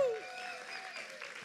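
An audience applauds in a steady, dense wash of clapping that holds at an even level, with a brief tonal voice-like sound fading out at the very start.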